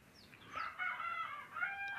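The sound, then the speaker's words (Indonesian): Chickens near a house crowing and clucking, a loud drawn-out rooster-like crow rising and falling, repeated twice with a short break, no voices. “ini ini kayaknya ayam ayam di dekat rumah aku ini kayaknya mau banget masuk dalam podcast oke udah diam nih diam ya Allah”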